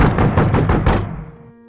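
A father's fist pounds hard on the door of a small apartment in a rapid burst of about six heavy, booming blows, loud, then stops and leaves a short fading echo.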